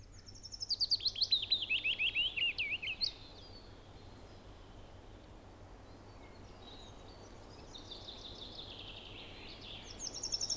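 willow warbler song

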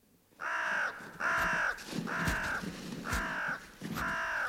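crow cawing

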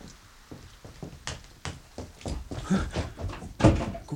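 door being pushed open

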